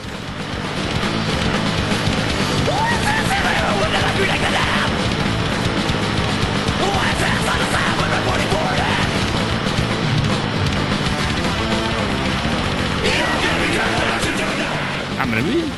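A death metal song blasts at full volume, a dense wall of distorted instruments with harsh vocals running without a break from start to finish.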